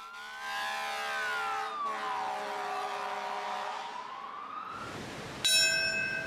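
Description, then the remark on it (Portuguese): Wailing sirens rise and fall for several seconds, then a single loud memorial bell strike, rung at the times the planes crashed on 11 September 2001, rings out near the end, its bright, sustained tone lingering as it tolls. “Este sino toca no mesmo horário em que os aviões caíram.”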